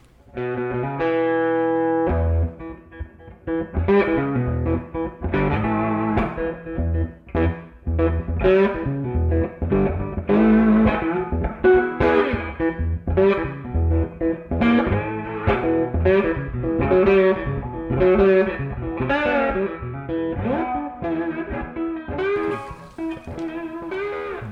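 A song built on electric guitar, its distorted, effects-laden tone ringing out loud and continuous for the whole stretch, with strummed chords and picked notes layered over a steady rhythmic backing.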